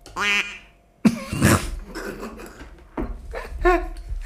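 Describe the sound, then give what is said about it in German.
Several loud duck quacks come in short nasal bursts separated by brief pauses, with no talking. “Die Ente der Woche.”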